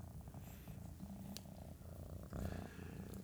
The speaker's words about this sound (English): Um, the cat's tearing it up. she purrs so loud.